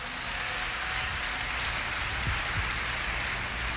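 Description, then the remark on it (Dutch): A church audience applauds the Lord during a sermon in a dense, steady wash of many hands clapping, sustained evenly for several seconds without any voices over it. “Kom maar, laten we de Heer een applaus geven.”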